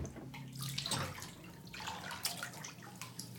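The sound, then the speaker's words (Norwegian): Water splashes and sloshes in a bathtub as a person bathes, a few irregular surges of movement rising and settling over a few seconds, with no voices. “derfor må jeg ta lange bad for å holde det i sjakk”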